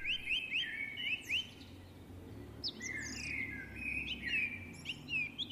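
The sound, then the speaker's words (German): Several birds chirp and trill continuously, with bright warbling phrases and quick repeated notes layered over a low outdoor rumble, moderately loud, with no voices. “Dieses Zwitschern und Trällern, das klingt richtig gut.”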